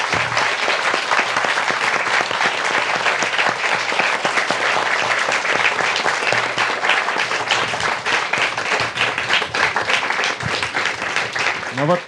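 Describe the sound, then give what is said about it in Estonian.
Loud, sustained applause from a festival audience for two men who spoke openly, a dense rattle of many hands clapping steadily without pause, with a faint low hum underneath. “kestev aplaus, väga äge.”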